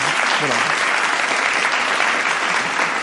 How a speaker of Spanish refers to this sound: Espera, aplausos.